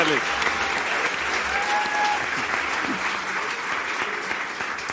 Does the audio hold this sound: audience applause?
yes